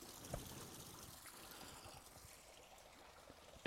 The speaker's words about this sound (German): Nicht so einen mit einer Spritze, sondern einen mit einem dicken Rohr. Da läuft das Wasser in den Teich rein.